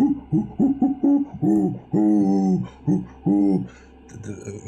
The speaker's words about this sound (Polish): ze wszystkich właściwie stron odzywają się ptaki